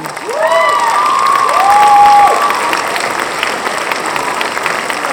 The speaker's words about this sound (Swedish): Så en applåd för meditationen!